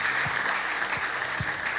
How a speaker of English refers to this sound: Let the worship tip continue. Let's give God round of applause as she comes.